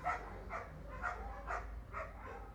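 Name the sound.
dogs barking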